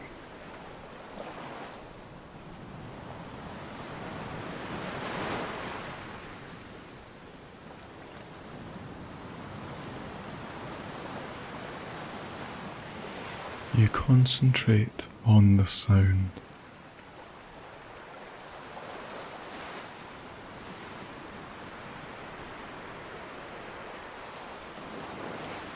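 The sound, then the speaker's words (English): Ocean waves roll and crash in a steady, hissing wash of spray, swelling loudly early on, while a voice briefly speaks over the surf partway through. “It's like a cymbal being hit in an orchestra, crashing with a trebly hiss.”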